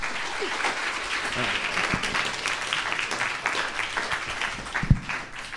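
Sustained applause from an audience welcoming a guest fills the whole stretch, a dense steady wash of many hands clapping, loud, with a few brief shouts or cheers poking through.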